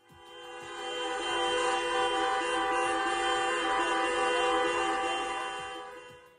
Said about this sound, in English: but they were present at the Estadio Martinez Valero to voice their concerns and protest against the club's ownership, as you can hear here from fans gathering in the car park outside the stadium before kickoff.